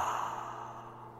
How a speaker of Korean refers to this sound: 졸립다. 졸음이 온다. 하, 하품이 나온다. 하품.